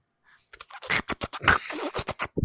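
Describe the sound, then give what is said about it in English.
Rapid squishy, wet squelching noises, like slippery spaghetti being squeezed, probably made with the mouth. About a dozen bursts in an uneven rhythm, fairly loud, with no talking. “Commence spaghetti noises.”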